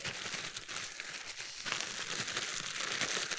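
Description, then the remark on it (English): Steady crinkling of plastic as a Ziploc bag is zipped shut, a continuous crackly rustle lasting a few seconds with no voices. “Zip this up.”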